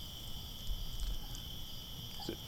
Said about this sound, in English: Can you folks hear the roaring, the, the quiet, smoothing roar of the fire? I'm sure you can hear the crickets yes, the fire, the crickets.